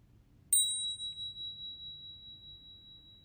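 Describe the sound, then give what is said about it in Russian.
A single meditation bell is struck once, then rings on with a clear, high, steady tone that fades very slowly, its shimmer pulsing gently. It is heard alone against a quiet background. “И после звонка колокольчика я дам вам инструкцию.”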